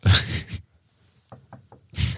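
Three quick, light knocks on a wooden surface in a short rhythmic burst, set between louder rushes of breathy noise at the start and end; someone knocking on wood, as in the saying 'touch wood'.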